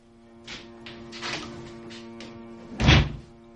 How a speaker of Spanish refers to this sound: Juan abre la puerta.